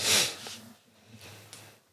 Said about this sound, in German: was denn muss die Nase putzen